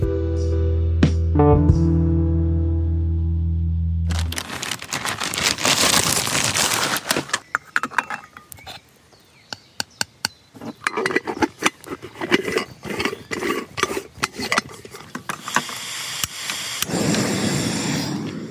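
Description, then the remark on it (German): A Bialetti moka pot brews coffee on a camping stove: after a short low hum, a loud hiss sets in with irregular sputtering pops and crackles that continue steadily to the end. “So, ihr hört's. Kaffee muss sein in der Bialetti.”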